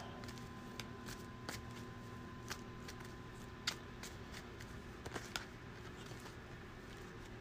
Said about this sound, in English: Shuffle, shuffle, shuffle. All right. Good and shuffled.